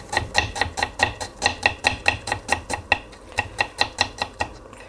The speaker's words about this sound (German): Und die Zwiebel. Ihr könnt die in Würfel oder Scheiben schneiden. Ich schneide sie hier in feine, dünne Scheiben.